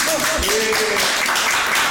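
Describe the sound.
Steady, dense audience applause fills the short moment, a continuous wash of many hands clapping at an even loudness, with faint voices and a brief high whistle-like tone mixed in.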